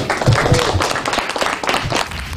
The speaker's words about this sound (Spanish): Un aplauso para ustedes, chicos.